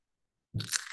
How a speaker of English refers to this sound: No, I'm eating a pretzel. No, I hear popping from that.